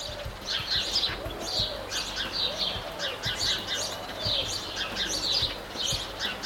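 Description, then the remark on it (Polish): Small songbirds chirp and tweet continuously in bright, high bursts, with a soft cooing call underneath and a steady outdoor background hum. “No w każdym razie jakieś takie ptaszki śpiewające, ćwirkające.”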